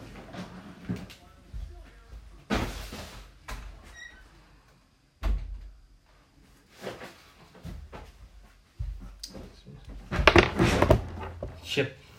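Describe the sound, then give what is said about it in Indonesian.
A door is handled and pulled shut as the speaker closes their own door, with a few knocks and clunks including a sharp thud midway and a louder burst of rattling near the end. “kayaknya gue gue tutup dulu pintu gue ya”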